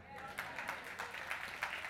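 An audience at a service applauding, many hands clapping in a steady, roughly rhythmic beat of crisp bursts at moderate loudness, continuing throughout without a break.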